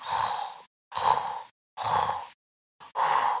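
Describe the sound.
A voice imitates snoring as a vocal exercise, with four breathy, rasping bursts in a steady rhythm, each about half a second long, separated by short silences. Moderately loud, with no speech.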